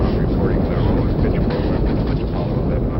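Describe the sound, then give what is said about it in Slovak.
A deep, continuous roar of a Saturn V rocket lifting off on Apollo 11 rumbles without a break: dense low-frequency thunder with crackling texture, steady and loud throughout. “Až teraz zaplavuje okolo stojace David ľudí ohromný hluk rakety.”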